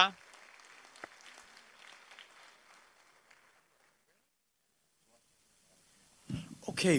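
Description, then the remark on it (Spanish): Audience applause for the JP Morgan Chase Fellow class of 2023, a soft, steady patter of clapping that fades out over a few seconds, followed by a brief silence before someone starts speaking. “Una gran aplauso.”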